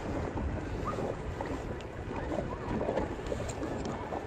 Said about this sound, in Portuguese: Daqui a pouco eu chego no raso. Tá ouvindo o barulho? Da, das ondinhas?